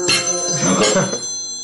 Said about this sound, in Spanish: Uy, teléfono.